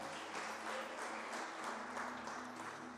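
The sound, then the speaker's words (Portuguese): An audience applauding together to affirm belief in God's promise, a dense, steady wash of many hands clapping that holds at an even level for a few seconds, with a faint low hum underneath. “Se você acredita nessa promessa, aplauda, Senhor.”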